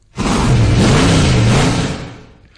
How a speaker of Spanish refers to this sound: es el coche más rápido y que mejor ruge de las ondas